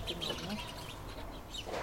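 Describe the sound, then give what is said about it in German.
A pigeon coos softly in a few low, throaty murmurs in a neglected backyard courtyard with rubble and bicycles, with faint higher bird chirps and steady outdoor background noise around it. “Zuspruch bekommt der Hinterhof allein von der Taube.”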